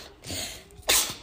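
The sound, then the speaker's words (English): A single sneeze: a short breathy intake building into a sharp, loud burst of hissing noise, with no talking. “Bless you.”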